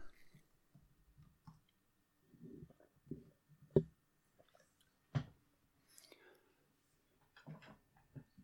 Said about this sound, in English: That only leaves me uh, with the drinkability ranking, and I actually haven't haven't quite put my finger on it just yet. let me have one more sip.